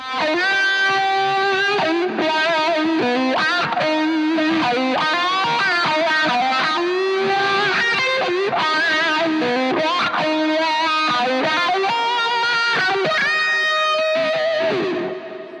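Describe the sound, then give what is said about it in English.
The outro solo of a song: a distorted electric guitar solo wails over a full band, with long sustained notes, sliding bends and quick melodic runs, loud and steady for the whole stretch with no voices. “Outro solo.”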